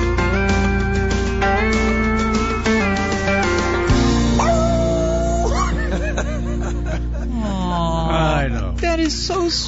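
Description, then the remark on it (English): A dog whimpers and yips without pause, high whining cries rising and falling in pitch, mixed with short sharp yips, loud and filling the whole stretch. “Sounds just like Riley.”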